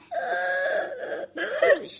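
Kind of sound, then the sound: human body sound, person crying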